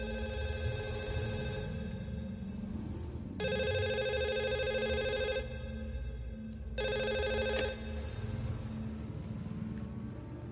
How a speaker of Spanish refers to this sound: Se pone los cascos y hace la llamada. En el hangar, el teléfono suena.